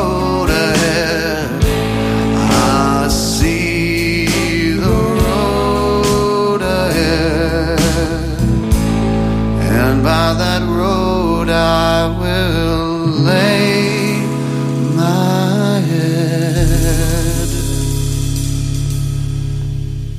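A full band plays a song in a live studio setting, with steady bass, ringing guitar chords and shifting melodic lines at a consistently loud, close level, with no singing in this stretch.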